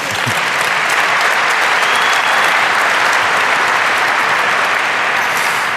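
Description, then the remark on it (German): Steady, loud applause from a large audience, a dense hiss of many hands clapping that holds evenly for several seconds with no voices standing out. “Ich hatte an dieser Stelle jetzt mit Applaus gerechnet.”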